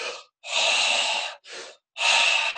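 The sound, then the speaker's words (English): A person demonstrates a series of forceful, breathy blowing exhales, fairly loud, in several bursts of varying length separated by short silences, with no speech. “Okay, so you're not blowing or”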